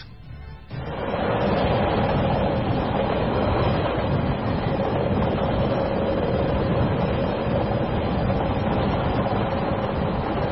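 A train rolls along the rails with a loud, steady rumble and rattle that starts after a brief quiet moment and continues unbroken to the end, with no voices.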